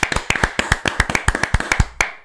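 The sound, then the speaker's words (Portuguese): A brief round of hand clapping given for a girl on the MotoGP Portugal show, roughly a dozen sharp, crisp claps in a quick, slightly uneven rhythm, fairly loud and with no voices over it. “Uma salva palmas para a As melhores para a menina.”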